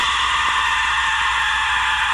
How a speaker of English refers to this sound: Once again, let's play what they're calling the Aztec death whistle. Listen.